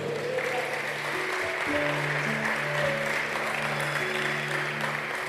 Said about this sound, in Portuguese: Você pode aplaudir esse Deus maravilhoso?